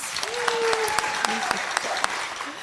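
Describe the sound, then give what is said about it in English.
An audience claps in a scattered, uneven burst when asked to clap if they could care less about the Patriots or the Rams, with sharp individual claps standing out over a steady wash of applause while a few voices call out faintly in the room. “Clap if you could care less.”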